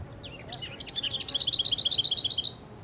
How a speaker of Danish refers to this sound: Og hvem er det, vi hører der? Gærsanger. Det er gærsanger, ja. Dikke, dikke, dikke, dikke, dikke, dikke, dikke. Ja.